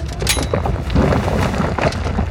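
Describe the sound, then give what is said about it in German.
A volcano on an island erupts with a deep, thunderous boom that rolls on as a heavy, continuous rumble, loud, with crackling bursts riding over the roar and no voices, as basalt chunks and lava are hurled from the crater. “Der Berg donnert. Der Vulkan bricht aus.”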